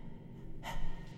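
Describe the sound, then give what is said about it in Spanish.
A single heavy, breathy intake of air, hushed, a voice imitating a caller who says nothing and only breathes into the telephone, with no words spoken. “Y los llamaba a veces, llamaba, llamaba a los padres, los padres cogían el teléfono y él no decía nada, solo respiraba”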